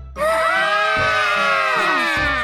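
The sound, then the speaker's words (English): A group of people scream together while running away from a giant, loud, sustained high-pitched cries that waver and slide in pitch, continuing for about two seconds without a break. “I love to find some friends, but people run away screaming when they see me.”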